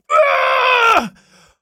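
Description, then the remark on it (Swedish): A single loud, strained vocal scream of frustration, held for about a second before dropping off into a low groan and a faint tail, voiced by a person imitating their own scream in a parking garage. “Så jag står där och skriker i parkeringshuset bara”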